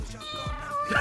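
A cat gives a single drawn-out meow, steady and high-pitched with a slight rise at the end, heard alone over a faint low rumble.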